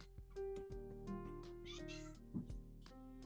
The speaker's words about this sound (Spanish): ¿Hay un gatito por ahí? Sí, mi gata.